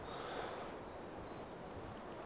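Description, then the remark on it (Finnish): Faint birdsong, with a raven croaking, drifts through a quiet outdoor setting: a few thin, high whistled notes over a steady hiss of background ambience, with no one speaking. “Linnut laulaa, korppikikkaraakku äsken hienosti.”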